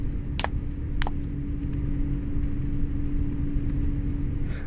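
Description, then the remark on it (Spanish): Steady low engine rumble inside a city bus, heard from the last seat, with a constant hum and two brief sharp clicks or rattles early on, no talking. “Santoyo va sentado en el último asiento de un bus urbano viendo pasar el paisaje por la ventana”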